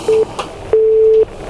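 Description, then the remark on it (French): A telephone ringing as a steady electronic tone: one short beep, then a longer held one at the same low, pure pitch, moderately loud, with no voices. “C'était donc, c'était donc un téléphone qui sonnait.”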